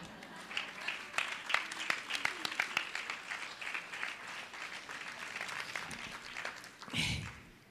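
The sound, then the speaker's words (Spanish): A crowd claps steadily, many overlapping hand claps forming a dense, sustained patter of applause that continues for several seconds before briefly swelling near the end. “Todavía me aman, pueden aplaudir.”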